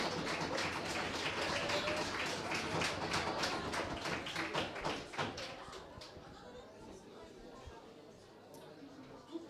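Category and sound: crowd, audience applause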